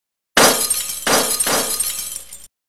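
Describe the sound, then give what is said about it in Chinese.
Thousands of glass test tubes fall from a tall, knocked-over storage rack and shatter on the floor in a loud, bright crash, followed by two more waves of breaking glass and a steady tinkling spill of shards that stops abruptly after about two seconds. “成千上万的玻璃试管从上方跌落，在地面上炸开，碎血四溅。”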